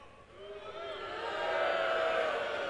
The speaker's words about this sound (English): No, don't cheer.